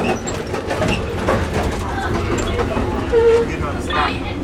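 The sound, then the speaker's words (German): Steady rumbling rail noise from inside a moving train, passing between carriages, with rattling and clattering and a brief metallic squeal near the end, loud and continuous throughout. “Genau, das bei diesem ersten Ausflug merken wir, dass der Speisewagen direkt an unserem Wagen angeschlossen ist.”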